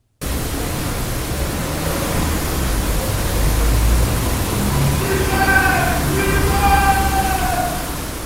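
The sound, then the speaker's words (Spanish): A faint, high-pitched scream rises out of steady, heavy hiss in the second half, drawn out and wavering, within a very noisy recording. “Desde luego, lo que es un grito, un grito clarísimo.”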